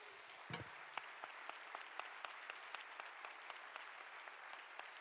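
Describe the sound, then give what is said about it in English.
An audience claps their hands unto the Lord at a night service in a dense, steady wash of applause, with sharp rhythmic claps cutting through at a quick, even beat throughout. “Clap your hands unto the Lord right now if you love Him tonight.”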